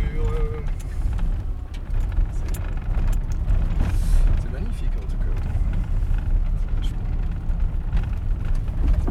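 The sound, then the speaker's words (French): A Dacia car engine labors steadily at low revs with rumbling and jolting as it crawls up a rough, steep track, while a person speaks briefly in French over the noise. “On va casser la voiture.”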